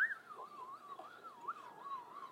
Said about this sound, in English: that whistling is cool.